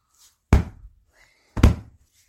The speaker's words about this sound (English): Do you hear that? That stomping? You hear all that stomping? I think the there's a T Rex coming our way.